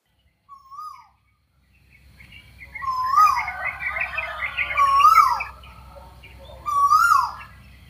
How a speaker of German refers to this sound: In Klammern, er heißt übrigens indischer Koel. Und ganz exklusiv nur hier im Podcast, so klingt der gute Knabe.